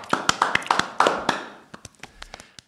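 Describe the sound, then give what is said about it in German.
A brief burst of light applause from a few people welcoming a guest, sharp claps clustered at first, then thinning out into scattered, fading slaps before stopping. “Einen kleinen Applaus noch für Steffen.”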